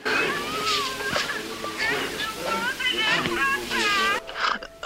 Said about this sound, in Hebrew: אני בסדר. אני בסדר גמור. כן. אני לא יכול לדבר, אני בוכה.